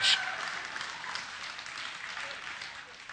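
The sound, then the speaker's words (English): An audience claps steadily for about three seconds, a dense, even patter of many hands that begins with a brief burst and eases off slightly toward the end. “And if that woman keeps clapping and saying amen, I'm going to go crazy and dance a jig up on this stage.”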